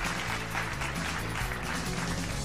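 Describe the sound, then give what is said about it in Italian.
Continuous crowd applause fills the whole clip, a dense steady wash of many hands clapping, with low sustained tones shifting underneath and no one speaking. It is played as background applause on a Radio Bandiera Nera book programme. “Rieccoci qua con un applauso sottofondo e eh?”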